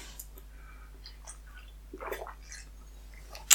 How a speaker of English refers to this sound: Sorry, that's very impressional. A big slurpy drink. I'm waiting for my coffee to cool down. So, glass of water for this guy.